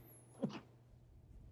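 A single short, sharp sneeze bursts out near the start, fairly loud, then fades into quiet room tone with a low steady hum underneath.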